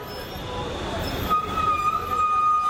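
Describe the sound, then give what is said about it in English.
Busy street traffic in Dhaka, Bangladesh, with rickshaws, cars and buses: a dense, steady roar of engines and road noise, with a thin, high-pitched ringing squeal cutting in halfway through and holding to the end. “You hear rickshaws and cars. Buses are everywhere, there's a lot of traffic, a lot of fancy cars on the road as well”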